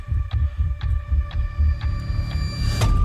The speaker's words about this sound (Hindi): विक्रम का दिल तेजी से धड़कने लगा